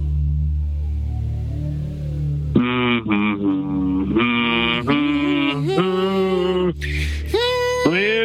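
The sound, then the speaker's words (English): A single voice hums a short, wandering melody of sustained notes that shift in pitch, fairly loud, after a couple of seconds of low background rumble. “It's a humming solo.”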